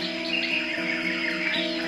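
Birds chirp continuously in a tropical garden by a house outside Pipa, among breadfruit and rubber trees, palms and cedars, overlapping high calls filling the air at moderate volume, with a steady droning tone running underneath and no talking.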